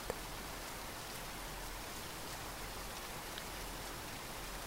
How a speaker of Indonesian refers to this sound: Kala menatap hujan malam ini, awan-awan tampak bercahaya. Mungkin ini yang sering kita lewatkan ketika membaca gerak-gerik hujan.